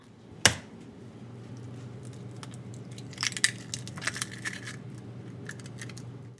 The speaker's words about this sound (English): That was the sound of an egg being cracked.